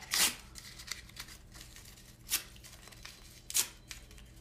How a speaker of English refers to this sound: Now I want you to take that piece of paper and I want you to tear it up.